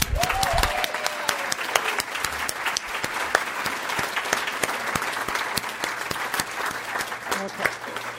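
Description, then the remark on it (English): A standing crowd of people applauds newcomers at an Overeaters group gathering, a steady, dense wash of overlapping claps lasting the whole stretch, with a faint whistle-like tone early on and murmured voices beneath. “Let's give our newcomers a hand.”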